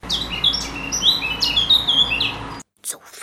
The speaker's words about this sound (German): Die Sonne war gerade aufgegangen und die Vögel zwitscherten fröhlich die ersten Lieder.